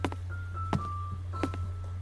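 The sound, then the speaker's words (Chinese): Hollow thumping footsteps walking back and forth on the wooden boards of a plank bridge, a few uneven steps with knocking impacts, over a steady low hum and faint tonal whines. “棕熊被木板上走来走去的脚步声吵到睡不着，”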